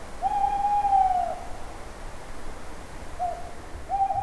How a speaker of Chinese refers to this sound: 哦，这是猫头鹰的叫声。